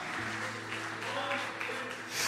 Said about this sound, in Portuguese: Pode aplaudir bem forte ao Senhor, meu amado.